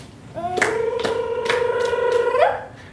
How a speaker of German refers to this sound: Drei Performer klatschen in die Hände, klopfen auf ihre Körper und erzeugen dadurch rhythmische Klänge.